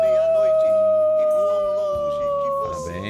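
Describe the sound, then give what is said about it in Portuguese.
A person imitates a werewolf howl, holding one long, loud, wavering tone that slowly drifts lower over about three seconds, with a low hum of background sound beneath it. “Não sei o que aconteceu, se transformou? Já é Já era. É, sempre fui meio lobisomem, né?”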